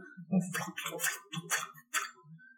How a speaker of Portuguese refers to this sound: Que era o rolo do filme batendo lá dentro do. que tinha acabado o filme e ele não falava corta.